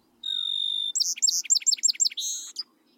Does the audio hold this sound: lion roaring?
no